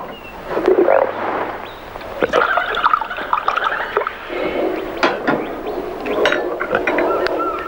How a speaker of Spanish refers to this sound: Es raro, ¿no? Quiero decir, eh, ¿a qué viene que las tripas hagan tanto ruido?